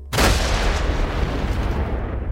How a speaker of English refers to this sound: There is a loud explosion, and Adamant gets a faceful of soot, but they both grin and nod at each other.